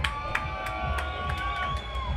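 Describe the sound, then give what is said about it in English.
A large crowd at Ground Zero Festival, Costa del Schranz, screams and cheers for a DJ continuously, a dense wash of voices with scattered high shouts and whistles rising above it, loud, with no break across the whole stretch. “One more time, please let me hear you scream for …!”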